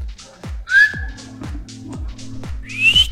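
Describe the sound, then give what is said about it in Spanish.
Someone tries to whistle, producing two short, breathy rising tones with lots of air noise, over a steady, repeating low thumping beat in the background. “No sé chiflar, pero sí.”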